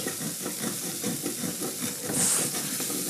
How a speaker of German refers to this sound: So, ich schaue mal zum Tofu wieder. Und ordentlich angebrutzelt schon. Hört ihr das? Ich kratze da jetzt richtig.